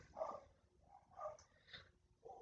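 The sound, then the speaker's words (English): Dogs bark, a few faint, muffled barks spaced irregularly over a couple of seconds, with no one speaking. “dogs are barking again”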